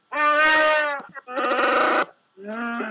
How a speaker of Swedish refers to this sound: Eh, så att då är det ju så att då har vi fördelen att ni får det här fantastiska Chewbacca-ljudet och så har vi en nackdel.